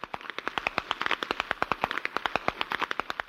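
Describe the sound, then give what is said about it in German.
Sharp whip cracks snap out in rapid, overlapping succession from a group (Passe) cracking whips together at the Rupertigau Preisschnalzen competition, with groups from Traunstein, Berchtesgadener Land and Salzburger Land, before thousands of freezing spectators; a loud, steady crackling rhythm of dozens of bright pops with no talking. “Es ist halt ein schöner Brauch, muss ich sagen, dass die Jugend wieder zusammenkommt und das ist ja ein bisschen motivierend, dass richtig schnalzen und das schön wird.”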